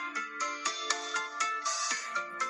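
A mobile phone ringtone plays a bright, tonal melody of rapid stacked notes in a steady repeating rhythm, moderately loud, with no talking over it.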